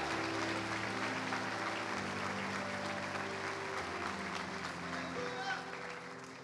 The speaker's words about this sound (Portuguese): Aplauda o Senhor em nome de Jesus.